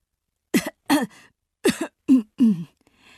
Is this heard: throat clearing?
yes